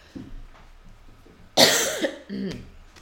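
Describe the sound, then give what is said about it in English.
A single sharp cough bursts out after a quiet moment, followed by a softer rasping sound like a throat clearing, with faint background murmur. “Only when it's important to your cough.”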